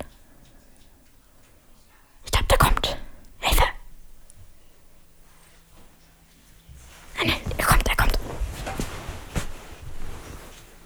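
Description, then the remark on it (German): Breathy, hushed whispering comes in two bursts, one around two to four seconds and a longer one later, with quiet gaps between. “Flüstern.”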